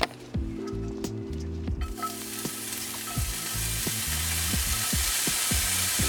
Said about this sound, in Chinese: 所以呢，这边呢就把它我们刚刚切好的蒜头、辣椒，还有一点点葱下到锅子里面。